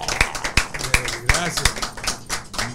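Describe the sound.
Audience applause welcoming Venezuelan musician guests, a handful of sharp, evenly spaced claps, about one every third of a second, then fading into softer scattered clapping, with voices murmuring underneath.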